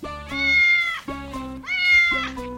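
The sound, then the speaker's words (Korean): A cat being carried in a woman's arms meows repeatedly, three drawn-out, rising-then-falling cries in quick succession, loud, with no talking around them. “저기 백일호 아줌마 아니야? 웬 고양이를 안고 오지?”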